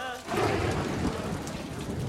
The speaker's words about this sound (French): Il pleut ainsi depuis des semaines.